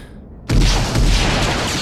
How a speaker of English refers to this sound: Gunfire rattled the room and sent sparks skidding across the walls around them.